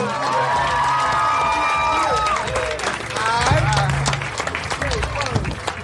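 A crowd in Philadelphia breaks into loud, steady applause for a producer, with dense clapping mixed with whoops, shouts and high whistling cheers that rise and fall throughout.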